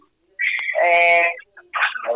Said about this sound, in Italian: Chi è che miagola? È il mio gatto.